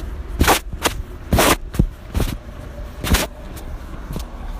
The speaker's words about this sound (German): So, also, ich muss über die Straße gehen, aber wieder mal XXL-Verkehr an der Kreuzung.